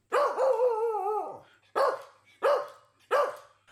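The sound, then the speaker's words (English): A Shih Tzu lets out one long, drawn-out yowling bark, followed by three short, sharp barks in quick succession, loud with no one talking. “I'm sure they would be happy to hear it is the Shih Tzu.”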